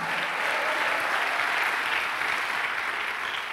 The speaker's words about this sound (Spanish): Dale un aplauso a Cristo, amado hermano. A su nombre sea la gloria.